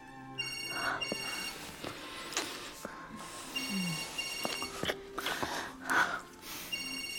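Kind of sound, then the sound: signal or alarm, telephone ringing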